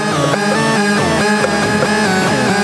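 A Singamagoop 3000 optical synthesizer plays a loud, dense stream of buzzy, harmonically rich tones, its pitch sliding and warbling up and down in quick, irregular swoops with no one talking.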